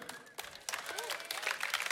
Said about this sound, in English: Oh, this is the biggest applause ever.